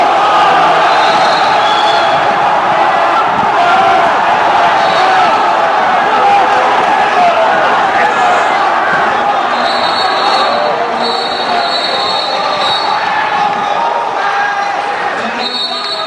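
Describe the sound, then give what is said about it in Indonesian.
A large crowd roars and cheers in the final seconds of winning a PLP match, a dense wall of overlapping voices and shouts that stays loud and steady throughout, with sharp whistles and squeaks cutting through now and then. “itu itu eh, itu dari detik-detik menang coy.”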